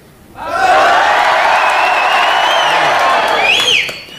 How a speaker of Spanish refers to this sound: Vamos a gritar nada, eh, así nada más. Los primeros los de abajo, adelante.